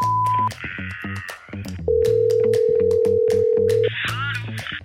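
Quick electronic dialing beeps followed by a long, steady ringing tone on a phone line as a number is called, then more tones over a layered background, fairly loud with no one talking.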